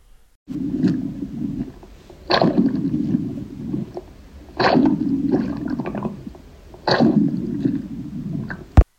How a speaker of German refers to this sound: Ist das Tauchen? Passt, ja, es ist unter Wasser. Es sind natürlich nicht die besten Aufnahmen. ich glaube, es ist ein bisschen schwierig, weil die Aufnahmen einfach so scheiße sind. Ähm, es ist unter Wasser, Bro.